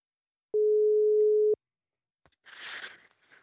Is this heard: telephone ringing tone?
yes